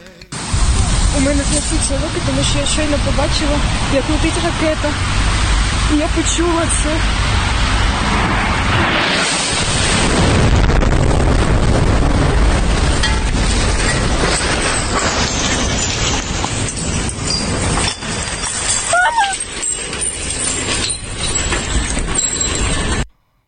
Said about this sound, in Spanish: El audio de la chica que dijo parece que están cayendo misiles y toma hasta la despeinó.